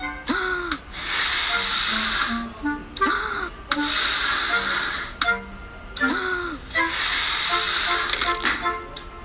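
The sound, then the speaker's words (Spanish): Three long, breathy blowing bursts, each a few seconds of loud airy hiss with a short pause between, as a hedgehog puffs hard to inflate colored balloons. “Sopló, sopló y sopló, pero...”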